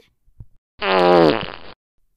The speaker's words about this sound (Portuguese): Ai, que cheiro ruim! Quem soltou um pum?